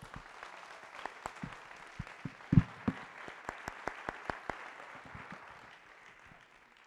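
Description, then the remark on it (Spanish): A group of people applauds those attending for the first time, with scattered, sharp claps over a steady patter of clapping, a few louder claps standing out before the applause gradually thins and fades away. No one speaks. “¿Cómo ven si les damos un aplauso a los que están aquí por primera vez?”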